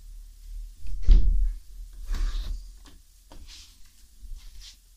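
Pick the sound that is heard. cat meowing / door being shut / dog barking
door being shut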